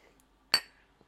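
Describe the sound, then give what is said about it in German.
A single bright clink of two cups of rosehip tea knocked together in a toast, sharp, ringing briefly before fading into quiet. “Prost. Prost.”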